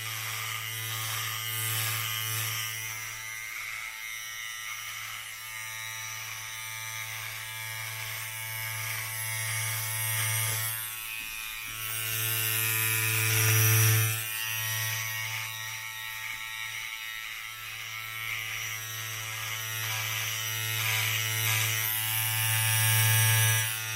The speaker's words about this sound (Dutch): Maar dit is het geluid van een knipbeurt bij een kapper. Het geluid van de schaar die om je oren heen gaat. En de tondeuze die vervolgens de klus afmaakt.